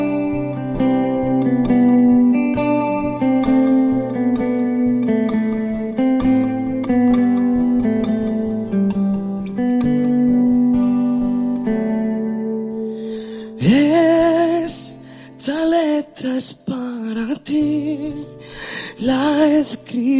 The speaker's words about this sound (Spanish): lo que vamos a escuchar es esa canción que cantas para el álbum de …